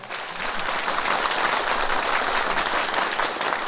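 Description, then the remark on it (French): The audience of the Grand Cabaret applauds itself steadily, a dense wash of many hands clapping at an even, sustained loudness for several seconds without any voices. “Applaudissez-vous, cher public, vous êtes formidables.”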